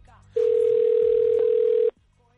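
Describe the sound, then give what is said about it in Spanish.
A steady, loud telephone tone of an outgoing call holds a single unbroken pitch for about a second and a half, starting and stopping abruptly, with faint room noise before and after. “Eva, haz el favor de llamar a Sara, a ver qué sorpresa nos encontramos.”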